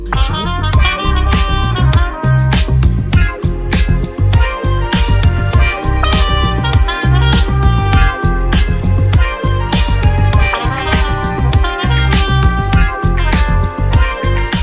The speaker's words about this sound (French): Écoutez, on se met un générique, on en parle.